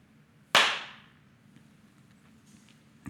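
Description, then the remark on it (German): A single sharp hand clap made to test how a room sounds before recording, followed by a brief buzzing flutter echo from the room that decays within about half a second, then only a low room hum remains. “Da hört ihr sehr deutlich, äh, was nach dem Klatschen der Raum für ein Echo hat und das Flatter-Echo.”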